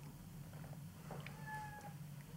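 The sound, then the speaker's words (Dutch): A single drawn-out cat meow, fairly faint and rising slightly in pitch, heard over a steady low background hum with no talking. “Taxi, de kat wil er ook in.”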